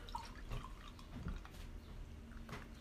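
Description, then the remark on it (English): Beer pours into a glass, a steady gurgling stream with a few splashy bursts as it fills, running for a few seconds with no one speaking. “pour some for my lovely wife. Thank you. Here you go.”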